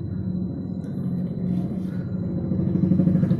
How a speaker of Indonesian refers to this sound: motor lewat iya. berisik